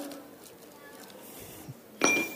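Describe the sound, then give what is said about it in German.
A single bright clink rings out near the end as a stone, one of several roughly equal-sized stones being stacked into a glass jar until it is full, drops into the jar, preceded by a quiet stretch of faint background noise and a soft knock. “Ich habe hier so Steine dieser Größe, ne? Und ihr sagt einfach, passt da noch einer rein?”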